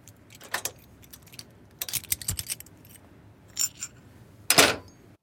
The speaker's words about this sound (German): Und die Tür zum Bunker fällt ins Schloss.